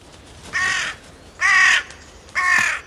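A crow caws three times in a slow, even rhythm, each call harsh, raspy and loud, with no one speaking.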